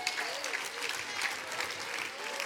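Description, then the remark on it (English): An audience claps steadily in a dense, continuous wash of overlapping hand claps, fairly loud and even throughout, with no talking on top. “Well, that's hard to clap on, is it?”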